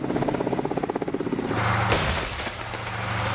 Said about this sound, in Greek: Ρωσικά ελικόπτερα πετούν πάνω από τον Ντονιέτσκ.